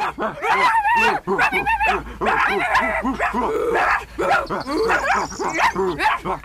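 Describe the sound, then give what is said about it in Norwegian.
A dog named Tassen barks loudly, a rapid, continuous string of sharp yaps and whiny yips with only brief pauses, filling the whole stretch. “Hold kjeft, Tassen! Jeg prøver å høre på frokost!”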